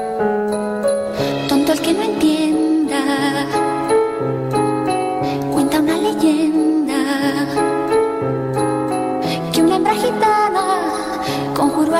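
A pop song plays at a steady, full volume, with layered sustained melody and regular rhythmic accents running throughout, close and clear with no talking over it.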